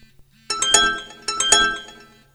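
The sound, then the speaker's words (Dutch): Two bright electronic phone chimes play back to back, each a quick cluster of ringing tones signalling that a text message was sent, clear with no voices, separated by a short pause. “Dus een flink geklingel van de telefoon om aan te geven dat hij het verzonden had.”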